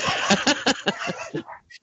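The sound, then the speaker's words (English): Dogs bark from another room in a quick, steady run of about eight sharp, yappy barks, fairly loud, with a short whine at the end and no talking. “My you know, my dogs agree with you too.”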